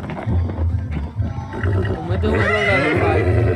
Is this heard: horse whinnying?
yes